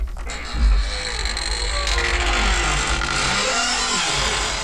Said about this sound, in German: Ah, die knarzende Tür.